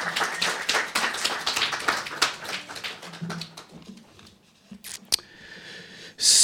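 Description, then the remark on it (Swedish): A short burst of audience applause, dense overlapping claps that thin out and fade, ending with a few scattered taps and a sharp bright noise at the end. “Tack så mycket, kul att få en komma applåd.”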